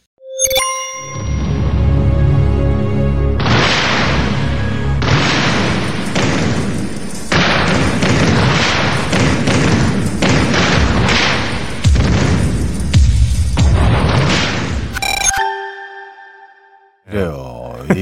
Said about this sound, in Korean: 네, 요거 90년대 청춘스타 이종원 씨가 바닥을 막 뛰다가 갑자기 의자를 발로 짚고 휙 넘어가는 이 광고.